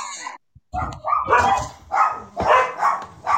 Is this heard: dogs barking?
yes